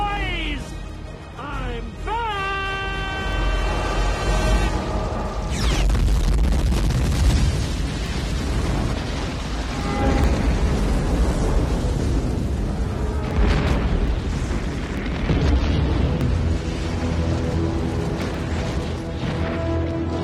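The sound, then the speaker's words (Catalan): Russell Case's plane crashes into the alien ship's cannon just as it is about to fire its beam, destroying the ship with a massive roaring explosion, a sustained wall of rumbling blast noise that swells and rolls on, layered with dramatic music and faint voices. “Sí, el nostre amic Russell Case s'estavella contra el canó de la nau justament quan estava a punt de disparar el raig i la destruís per complet.”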